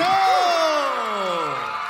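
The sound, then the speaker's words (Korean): An audience cheers loudly for two seconds as a group's song performance is introduced, with high whoops and shouts sliding downward in pitch over a dense wash of crowd noise that may include clapping, easing slightly toward the end. “네, 여러분 큰 박수 감사합니다.”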